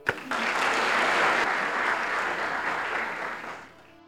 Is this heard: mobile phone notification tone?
no